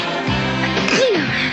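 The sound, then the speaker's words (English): A loud sneeze, voiced and drawn out with a rising then falling pitch, filling the short moment on its own without any talking. “Gesundheit.”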